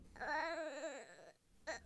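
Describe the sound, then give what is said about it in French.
A baby, found at the door of a castle hidden in the woods, cries in a long, wavering wail that trembles in pitch, falls quiet briefly, then lets out a short second cry. Fairly loud, with no one talking. “Un soir, Myrtille, Fraise et Framboise découvrent un bébé à la porte de leur château, caché au fond des bois.”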